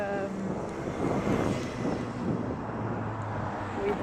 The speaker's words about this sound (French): le désavantage de l'extérieur, c'est que c'est le bruit des voitures et tout, et du vent.